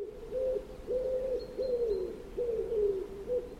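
A pigeon coos in a steady series of soft, low, hollow phrases, about four of them in under four seconds, clear against a faint background hiss.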